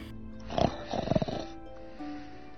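A voice imitates a loud monster snore of a sleeping creature on a snowy night: two rough, rumbling snorting breaths, the second longer and more drawn out, then a faint low hum as it fades.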